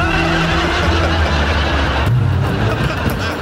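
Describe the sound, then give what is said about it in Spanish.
A car engine rumbles loudly and steadily, with a low droning tone that shifts partway through as the car approaches with its headlights visible. No one speaks. “Oigan, ahí viene un carro, se ven las luces.”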